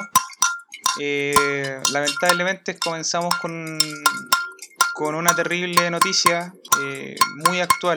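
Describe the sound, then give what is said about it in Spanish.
Pots and pans are banged in a cacerolazo protest, sharp metallic clanks striking repeatedly and irregularly in the background while a person talks steadily over the din. “Después de esta introducción se pueden escuchar los cacerolazos de fondo.”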